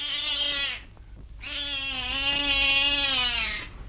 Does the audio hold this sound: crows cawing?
no